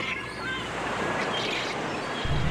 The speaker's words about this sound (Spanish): El vaivén del agua roja acaricia la arena de la costa japonesa.